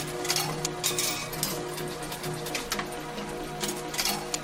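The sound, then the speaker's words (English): A coin-operated photo booth's mechanism runs: a steady whir of the motor and transmission with a low gear-like hum, broken by quick bursts of rattling, clicking and kerchunk sounds as a knife cuts the photo paper from the reel. Moderately loud, with no voices. “You can really hear the transmission.”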